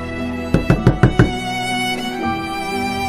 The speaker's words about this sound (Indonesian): Pintu kamar saya diketuk lagi. Karena males saya pun teriak, siapa? Gak ada jawaban, gak ada jawaban tapi kembali ngetuk.